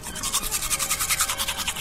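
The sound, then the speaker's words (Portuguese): Brisk toothbrush scrubbing as someone brushes their teeth in a bathroom: a steady back-and-forth rasp repeating about eight times a second in bright, hissy strokes, with no voices present. “Tem alguém no banheiro escovando os dentes.”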